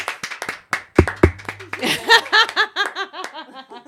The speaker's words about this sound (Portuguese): Cadê os... palmas que eu não tô ouvindo, gente?